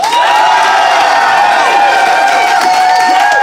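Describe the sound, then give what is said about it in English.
A studio audience bursts into loud, sustained applause and cheering, with many voices whooping over steady clapping that fills the whole moment without a break. “I would like you to applaud now.”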